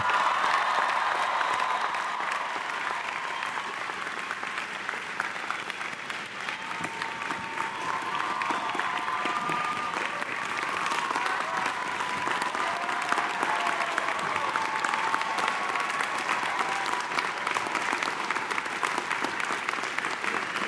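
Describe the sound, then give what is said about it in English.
Sustained applause from a large audience thanking the 14th Dalai Lama for his presence, steady and loud for about twenty seconds, with dense clapping and occasional cheers or murmurs rising within the crowd. “Okay, before we finish, one more time, join me in uh, thanking His Holiness the 14th Dalai Lama for his gracious presence.”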